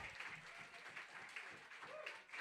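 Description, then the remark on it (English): An audience applauds the evening's poets steadily, many hands clapping in a dense, continuous wash of sharp claps at an even, moderate loudness throughout. “One more round of applause for all of our poets tonight.”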